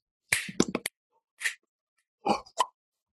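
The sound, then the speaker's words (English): Digital samples of finger snaps, tongue and lip noises, crisp clicks and wet lip pops used in place of drums and percussion as musical accompaniment, play in a quick cluster of about five, then a lone pop and a final pair, with no talking. “Instead of using drums and percussion and trumpets or whatever, I tried to capture that quirky New York energy using digital samples of finger snaps, tongue, lip noises to accompany him, kind of like this.”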